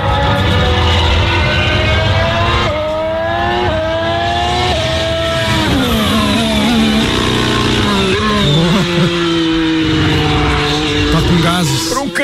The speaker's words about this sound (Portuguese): ronco da, da McLaren hoje, para quem de repente já viu nas redes sociais, foi mais ou menos esse. Prestem atenção.